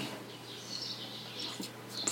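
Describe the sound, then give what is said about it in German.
Faint birds chirp and twitter outside, a thin, continuous high warble with a few brighter tweets near the end, no one speaking. “Gut, in der Zeit, wo Andreas sich um die Vögel kümmert”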